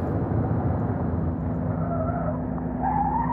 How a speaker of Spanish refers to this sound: El taxi vuelve a entrar en la parte elegante de la ciudad mientras Stephen cabecea contra la ventanilla del auto.